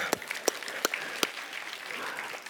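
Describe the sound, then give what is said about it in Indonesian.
An audience applauds, a steady wash of clapping at moderate volume with a few sharper, louder individual claps standing out near the start, continuing evenly throughout. “Boleh tepuk tangan gak?”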